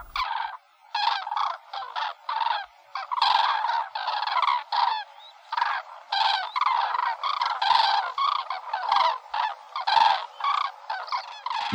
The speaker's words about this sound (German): Nicht minder eindrucksvoll ist aber auch das hundertstimmige Krür oder Krur einer größeren Schar wandernder oder rastender Kraniche.